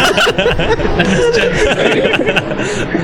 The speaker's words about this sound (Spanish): a ver, aguanta, es que está pasando un helicóptero.